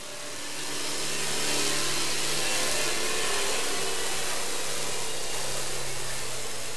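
A continuous boat engine drone recorded by an underwater hydrophone as the boat passes a bit closer to it: a steady low hum and broad rushing hiss swell in over the first second, then hold loud and unbroken.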